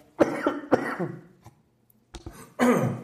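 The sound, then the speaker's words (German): A loud burst of several rough coughs in quick succession, pausing briefly before a couple more harsh coughs and throat-clearing sounds, with no talking. “Einen kleinen Hustenanfall, den ich dir ersparen wollte.”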